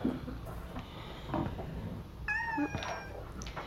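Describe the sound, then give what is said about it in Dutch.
A cat meows once, a clear rising and falling call, over a low background murmur with faint scattered noises before it, as a person gives it dry cat food. “En voor jou droge brokjes. hey, poes. Ik weet helemaal niet hoe jij heet.”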